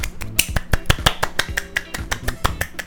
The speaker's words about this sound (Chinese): 今天呢比较不一样，是因为我要呃特别特别的开心跟大家宣布一件事情，就是我的 podcast 可以在 KKBOX 听得到了，掌声。